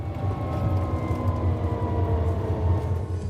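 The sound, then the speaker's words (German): A quiet electric bus hums steadily, with a low rumble and faint tonal whine holding at an even level across the few seconds, with no voices present. “So klingt ein E-Bus.”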